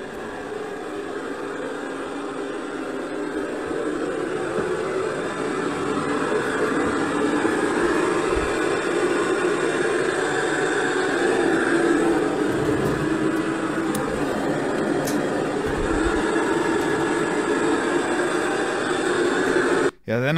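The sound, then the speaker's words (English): Steady, loud radio static hisses without a break for about twenty seconds from a microphone playing it on its own in a room at home, a dense wash of noise with faint murmuring tones woven through it, cutting off abruptly at the end. “It turns out that the microphone in the same room where the figure was spotted started playing radio static on its own.”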